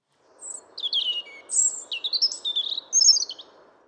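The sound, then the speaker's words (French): A European robin sings a clear, rapid warbling phrase of high, sliding whistles and trills, fairly loud over a faint low background hiss, with no voices. “le rouge-gorge que vous venez d'entendre”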